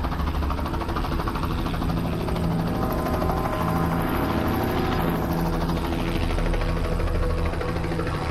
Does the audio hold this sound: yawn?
no